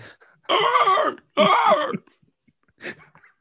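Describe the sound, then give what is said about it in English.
A voice mimics an ostrich with two loud, raspy hissing honks in quick succession, followed by a short, fainter squeak. No one speaks. “Someone in the chat said they hiss and honk and they chirp. So I'm just making noises.”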